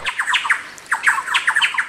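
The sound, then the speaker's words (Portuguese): A catatal bird call in the Pantanal: loud, harsh squawking notes delivered in two rapid bursts separated by a short pause, with no talking. “tem outros cantos de espécies comuns ali no Pantanal que marcam, como por exemplo o catatal”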